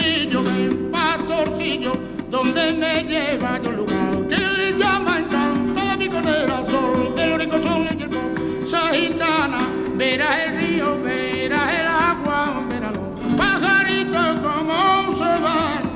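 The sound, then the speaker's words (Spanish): A recorded flamenco song with a voice singing rapidly in a tight rhythm over steady accompaniment, with ornamented melodic lines running continuously and loudly throughout. “Como podéis escuchar, además, tenía una facilidad para el compás y para una velocidad en la voz, para meter mucha letra en pocos compases, que eso también hacía que la gente le admirara y le gustara muchísimo.”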